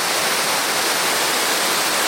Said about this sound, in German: Die junge Simme brodelt und schaumet direkt nebenan.